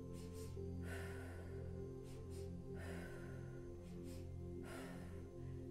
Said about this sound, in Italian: Ora respiro di fuoco.